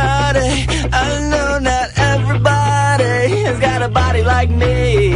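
A loud, full band rock cover song plays continuously, with heavy sustained bass notes and a wavering sung melody on top, driving on without pause and with no talking over it.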